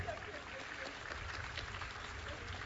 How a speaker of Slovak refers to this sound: Vyherkyňa je naozaj, by som povedala, až dojatá, veľmi sa teší taký veľký potlesk dostala, takže je to veľká udalosť.